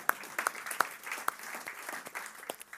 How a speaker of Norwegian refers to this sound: Jeg syns vi skal gi han en applaus.